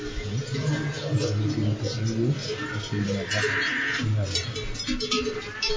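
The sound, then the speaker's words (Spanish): Cowbells clank irregularly among a herd of cattle, Alicia Chica's cows, with low lowing and animal calls blending into a steady outdoor din that continues throughout. “Aunque quizás este sea más el sonido de las vacas de Alicia Chica.”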